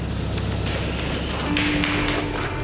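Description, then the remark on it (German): Hard, clicking footsteps of a knife thrower's metal-tipped shoes tap out a steady walking rhythm as he approaches, over a noisy background, with a low steady hum joining partway through. “Der erste Detektiv war gerade aus dem Hinterausgang des Gebäudes gestürmt, da hörte er, wie das harte Klacken der metallbeschlagenen Schuhe des Messerwerfers näher kam.”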